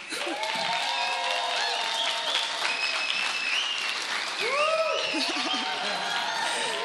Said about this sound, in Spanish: los puedo invitar a un aplauso para darle la bienvenida a la banda?